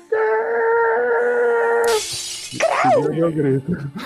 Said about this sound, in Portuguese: Gostou do vidro quebrando?